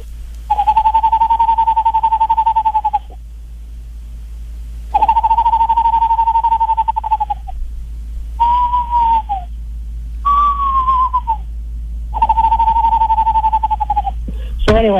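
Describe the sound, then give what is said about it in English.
A person whistles an imitation of an Eastern screech owl: five steady, quavering trills, each a couple of seconds long, separated by short pauses, close and fairly loud with no talking. “So, so anyway, here's, here's my Eastern screech owl if anybody likes it.”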